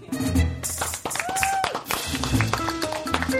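A crowd claps steadily in a dense patter of many hands, with cheering voices and a brief rising whoop mixed in, fairly loud throughout.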